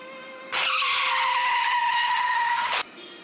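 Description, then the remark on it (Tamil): A loud, high-pitched tire screech from a speeding car as it hits a young girl, one steady squeal lasting about two seconds that cuts off abruptly, with no voices. “ஒரு கார்காரை வேகமாக வந்து இடிச்சிட்டு போயிட்டான் இடித்த சத்தம் கேட்டது”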